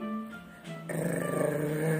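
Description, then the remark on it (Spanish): Wilbur, the cat of Winnie the witch in the Valerie Thomas and Korky Paul story, purring in a steady, low, rumbling drone that swells louder partway through and continues without pause for about two seconds, with no voices present. “ronroneo Wilbur.”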